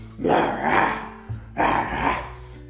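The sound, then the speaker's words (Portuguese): A person imitates a lion's growl twice, two long, rough, throaty roars, each about a second long with a short pause between them. “Eu sou o leão. O leão, o guardião, com amor no coração.”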